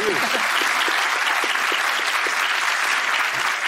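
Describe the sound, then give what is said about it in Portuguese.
Steady audience applause, a dense wash of many hands clapping at an even loudness throughout, with no voices standing out above it. “Vocês reparam uma coisa. Aplaude, aplaude.”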